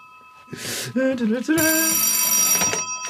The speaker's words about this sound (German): Ah, super! Telefon!